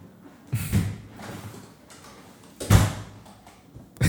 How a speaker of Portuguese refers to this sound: ele fica bravão que não, a porta não, não fecha.